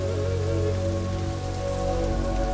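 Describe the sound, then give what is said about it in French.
Heavy rain at the start of the monsoon pours down steadily, a dense, continuous roar of water drumming on surfaces, with no pauses and no voices. “La mousson commence il y a des infiltrations d'eau dans la maison.”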